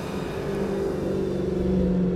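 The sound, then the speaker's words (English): A car engine revs loudly and steadily as the vehicle passes by, its deep rumble rising slightly over two seconds with no talking. “That's a nice car.”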